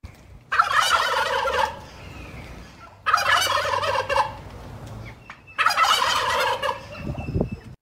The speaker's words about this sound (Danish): Det er en kalkun. Den lever ikke ret meget længere.